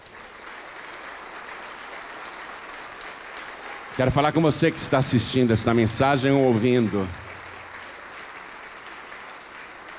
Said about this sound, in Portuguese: Vamos aplaudir mais, está chegando mais.